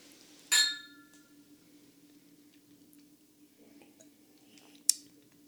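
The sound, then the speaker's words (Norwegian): Two glasses of good whisky clink together in a toast: one bright, ringing chime that fades over half a second, then a sharper, shorter clink a few seconds later, over a faint steady hum. “Skal vi skåle for det? Vi skåler, vi skåler ikke for den gode whiskyen”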